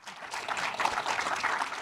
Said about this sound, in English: And and there's some some of the Royal teams up in the front row. Um, give, give the Royal team a quick round of applause right now. They're working real hard.